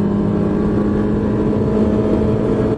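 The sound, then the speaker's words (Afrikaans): A car's 1.8-litre petrol engine with a CVT automatic gearbox revs hard under acceleration, a loud, continuous droning roar that holds a fairly steady, strained pitch throughout with no voices. “Hy toere met 'n lawaai die hoogte inskiet wanneer jy voet neersit.”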